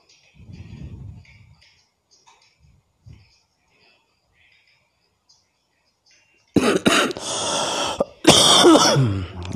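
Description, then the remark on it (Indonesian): Two loud, harsh coughing bursts from a person at someone's home, following several seconds of near quiet with faint high insect chirping and a brief low murmur in the background. “maaf batuk”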